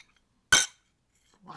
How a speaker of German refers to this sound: Ja, wir können jetzt echt anstoßen.